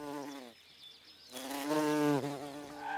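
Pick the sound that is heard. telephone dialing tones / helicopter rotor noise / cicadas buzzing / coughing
cicadas buzzing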